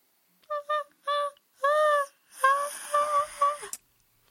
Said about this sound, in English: That's the sound of me crying.